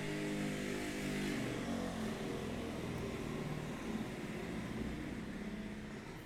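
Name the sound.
motorcycle passing by outside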